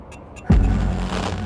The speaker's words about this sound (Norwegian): Dette er lyden av en hydrogenbil.